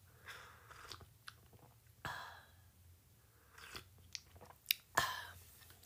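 Quiet mouth sounds of someone taking a sip of a drink: soft slurps, swallows and wet clicks spread across several seconds, with a couple of sharper smacks near the end and no talking.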